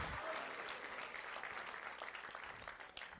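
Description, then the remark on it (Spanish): A church audience breaks into steady, sustained applause for the Lord, many hands clapping in a dense, continuous wash that holds at an even loudness for several seconds before tapering slightly at the end. “Alguien que le dé un aplauso fuerte al Señor y que diga conmigo, hazlo Señor.”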